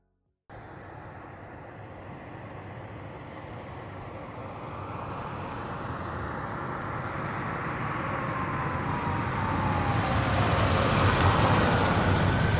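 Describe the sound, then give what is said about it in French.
A car engine rumbles steadily with road noise, growing gradually louder as the vehicle approaches and pulls in to park on route de l'Orna in Saint-Joriot, Annecy region, in January 2017, at sunset while snow falls. No voices present. “Une voiture se gare au 828 route de l'Orna.”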